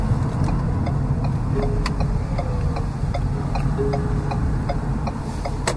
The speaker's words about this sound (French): Ah, j'adore ça, Louis, des voitures hybrides. C'est le silence qui est comme...